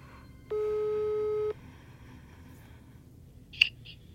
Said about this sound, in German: Ich rief die Handynummer an, die ich auf der Homepage fand.